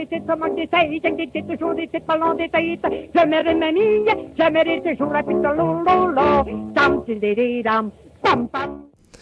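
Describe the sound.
A lively Quebec folk song plays: a woman's voice sings quickly in a bright, chattering patter, steady and close, with a few brief pauses, then breaks off abruptly near the end.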